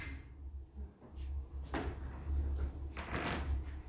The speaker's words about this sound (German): nicht hier rein! Hier dürfen Sie nicht rein. Bumm, die Türe zu.